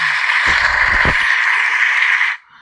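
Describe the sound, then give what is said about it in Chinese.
A dense burst of applause following a stretch of awkward small talk, steady and fairly loud, with a few dull low thumps early on, lasting about two seconds before cutting off abruptly. “那么在一段尬聊的鼓掌之后呢”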